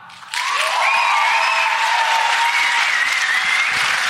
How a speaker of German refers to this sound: Euer Applaus für der perfekte Start ins neue Jahr.